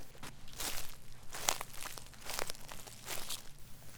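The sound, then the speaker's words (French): Footsteps crunch and rustle through dry brush and brambles while walking in a forest, a steady walking rhythm of crackling leaves and twigs, fairly loud, with no voices. “Imaginons qu'Inès soit partie se promener en forêt et qu'elle se soit griffée les mollets avec des ronces”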